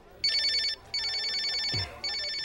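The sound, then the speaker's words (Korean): A telephone rings in three bright, buzzy bursts, each a rapid trill with short gaps between. There is no talking, and the ringing is loud and steady. “전화나 받아.”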